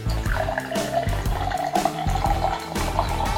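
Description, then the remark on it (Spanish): Beer being poured steadily into a glass, a continuous gurgling fill lasting a few seconds, with the pitch of the pour rising slightly as the glass fills. “Para conocer de cerveza es importante leer, pero lo principal es destapar, servir”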